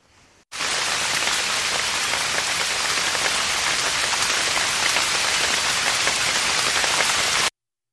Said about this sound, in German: Ein Kiefernwald. Kaum Hindernis für Regen. Hart fallende Tropfen. Trichter im Sand.